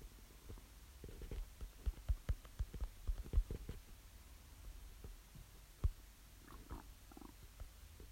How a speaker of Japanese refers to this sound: お腹鳴ってるの聞こえますか